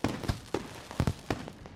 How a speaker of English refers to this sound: As the two of you insert your keys into your gates, there are fireworks that start going off, and a voice echoes across Hero Island.